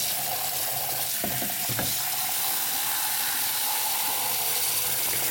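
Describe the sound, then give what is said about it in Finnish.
Ice-cold water runs steadily from a kitchen tap in a detached house, a constant rushing hiss with a few brief knocks early on, and no one speaking. “Arvat, arvat mitä mun hanasta tulee nyt. No ihan jääkylmää vettä.”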